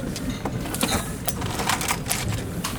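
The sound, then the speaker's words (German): A litter picker's grabber mechanism squeezed over and over, giving sharp plastic clicks and ratcheting snaps in an irregular rhythm over a low background rumble. “Oh, Müll und Papierkralle ist schon ganz geil.”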